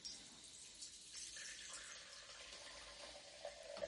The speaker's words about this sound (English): Hear that pour? Oh yeah. Mm. Like I said, we're just going to do ASMR of beer one of these days.